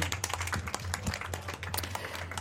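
A small group applauds, dense overlapping claps forming a steady patter for a couple of seconds, with a low hum underneath.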